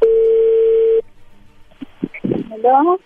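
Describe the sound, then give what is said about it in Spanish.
One steady, mid-pitched telephone ringing tone sounds for about a second as a phone call goes through, then cuts off. After a short pause, a voice answers over the line. “Bueno, ya entró la llamada, no haga ruido, vamos a ver qué pasa.”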